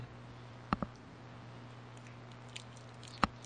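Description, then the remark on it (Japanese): A few soft bites and chewing sounds on a rice ball, a quick pair of crisp mouth clicks early on and another later, over a low steady hum with no talking. “おにぎり食べまーす。”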